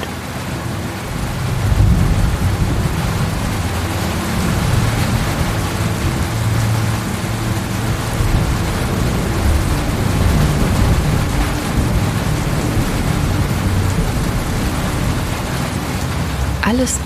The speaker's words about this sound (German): Die großen Wassertropfen prasseln auf den trockenen Boden und das Verandadach über uns. Die Landschaft vor uns verschwindet im strömenden Regen.